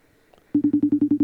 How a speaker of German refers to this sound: Du kannst ja mal fragen, ob sie uns versteht. Hört ihr es klingeln? Natürlich. Es klingelt.